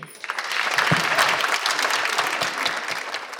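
An audience claps steadily for a few seconds to thank a guest speaker at the end of an evening event, a dense, even patter of many hands at moderate volume with no voices over it.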